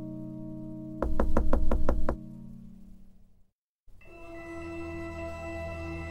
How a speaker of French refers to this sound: Enfilant à toute allure la chemise de nuit et les lunettes de la grand-mère, le loup se coucha dans le lit et il attendit le petit chaperon rouge qui ne tarda pas à frapper à la porte.